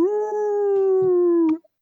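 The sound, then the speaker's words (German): A single sustained wolf howl, loud, holding a steady, slightly falling pitch for about a second and a half before cutting off, with faint thuds underneath. “aber jetzt komm, lass den Wolf heulen”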